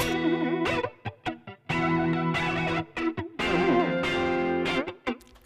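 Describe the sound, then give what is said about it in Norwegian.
A bright, buzzy synth tone with its pitch wobbling up and down in a warbling modulation sweep as a pitch effect is adjusted for how high and low it goes, played loud in short bursts and longer held phrases with brief gaps, no voices. “Og så skrur du på liksom hvor høyt uh, Hvor høyt og lavt den skal gå.”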